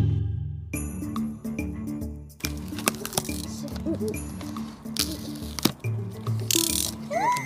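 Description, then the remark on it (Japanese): An Anker gift set box being opened and unpacked: busy rustling, scraping and sharp clicks of packaging being handled, with a steady tonal hum or music running underneath. “今日はなんと、うん、アンカーギフトセットっていうのが届きました。早速開けてみたいと思います。”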